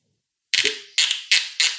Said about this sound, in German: das ist der Korken. Ja, ja, ich warte nur, bis das. Das klingt ja auch schön.